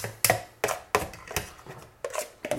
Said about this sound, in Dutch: even mijn potje uitkrabben.